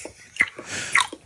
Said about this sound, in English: this is the sound of … fucking, chewing,